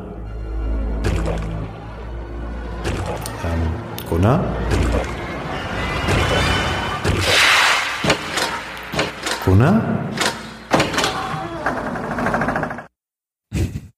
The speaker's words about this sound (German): Also das, was du gerade gehört hast, war, wie du sicher weißt, der Track A Zombie is Coming aus Resident Evil. 1, womit wir gleich bei unserem heutigen Thema sind.